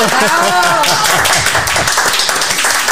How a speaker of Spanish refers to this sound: ¡Aplausos!